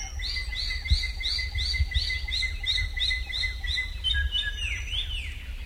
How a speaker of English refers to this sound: The Drongo's CCCA call often comes just before troops of monkeys emerge from the forest to steal corn. The farmers know to send their dogs toward the drongos to chase the monkeys back.